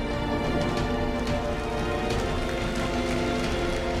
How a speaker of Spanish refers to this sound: Dale un aplauso Señor.